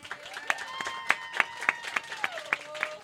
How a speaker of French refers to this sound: Donc, vous l'applaudissez maintenant.